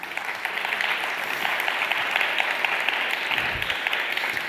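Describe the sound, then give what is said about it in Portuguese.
Steady audience applause to God fills the whole stretch, a dense, even wash of many hands clapping at a constant loudness with no voices on top. “Pai, você pode aplaudir a Deus por isso?”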